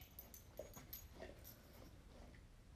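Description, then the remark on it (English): A dog whimpers softly and restlessly as it walks around in circles during rain, with faint short whines and shuffling movement against a low background rumble; no one speaks. “This dog is walking around in circle to circle. He's getting on my nerve.”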